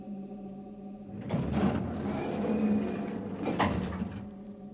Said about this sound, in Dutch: Luchtsluis aangesloten. Deur open.